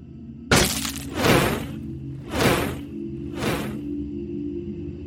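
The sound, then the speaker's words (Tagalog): Something lands hard on a roof with a loud, sudden crash, followed by three more heavy, rattling impacts spaced about a second apart over a low steady hum. No one speaks. “Ano yun lumapag na yun sa bubong?”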